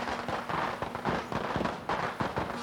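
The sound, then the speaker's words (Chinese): A dense, continuous clatter of firecrackers crackling in rapid, uneven bursts, mixed with gongs and drums being beaten all around in hutong lanes to drive off sparrows, and a steady ringing tone underneath. Loud throughout, with no voices. “四周都响起了声音，各种声音，也就是敲锣打鼓、放鞭炮。”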